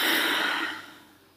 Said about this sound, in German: Und wir atmen dreimal zusammen tief ein und aus, tief ein und aus,